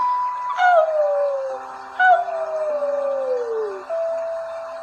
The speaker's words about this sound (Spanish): Los lobos aullan.